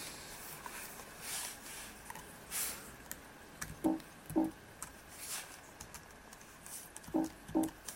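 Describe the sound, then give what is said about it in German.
Several quiet keyboard key presses, a few clustered clicks followed by paired taps, soft, with no talking, as the Control and Alt (VoiceOver) keys and the space bar are pressed to select items in the VoiceOver setup assistant on a Mac. “Wir müssen drücken Control und Alt. Das ist die Voice-Over-Taste und die Leertaste zum Auswählen.”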